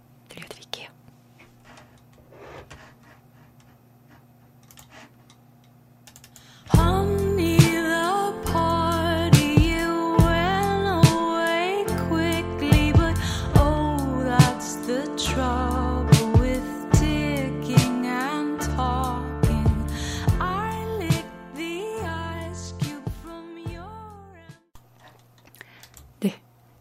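After a few seconds of near-quiet, an indie rock song with female vocals kicks in, steady drums and bass under layered melody, playing loud and close before cutting off near the end.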